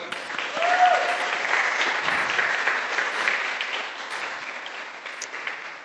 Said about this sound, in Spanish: Gracias por tu excelente trabajo y de todos los profes. Ah, un aplauso, por favor.